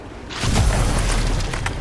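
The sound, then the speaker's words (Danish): A violent sea mine explosion under the stern of a steamship erupts suddenly after a brief quiet moment, followed by a heavy, sustained low rumble and crackling debris that roars on loudly without fading. “der indtraf en voldsom eksplosion under agterskibet.”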